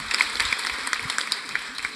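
An audience applauds in a steady burst of overlapping claps, dense and crackly, sustained for a couple of seconds at moderate loudness with no voices standing out.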